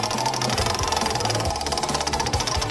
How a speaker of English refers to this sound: Let's get going and spin the wheel.